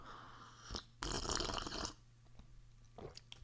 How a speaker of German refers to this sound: Ich nehme noch einen Schluck Kaffee und werde mich kurz aufregen, indem ich die Tasse jetzt ablecken muss. Sekunde.